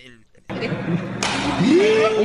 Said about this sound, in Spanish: Eso que oyeron es la cachetada, es en serio, ¿eh?